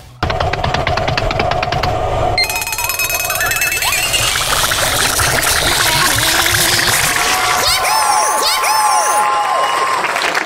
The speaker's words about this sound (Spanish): Y aplauso, aplauso, claro que sí.